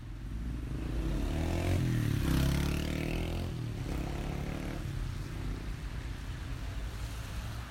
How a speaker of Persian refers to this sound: گوشی نویسنده پادکست دو سال پیش را توی خیابانی زدن که اسمش بهار. این صدای خیابان بهار است.